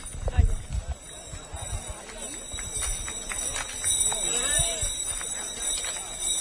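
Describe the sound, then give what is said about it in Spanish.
Mule hooves clop along a hard street in an irregular rhythm during the entrance procession of the Huelva brotherhood, filling the whole width of a bridge, mixed with a busy procession din of voices and a steady high-pitched whine overhead. “esté hoy aquí al lado de este mulo acompañando la entrada de su hermano de Huerva.”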